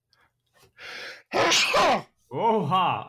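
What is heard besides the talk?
sneeze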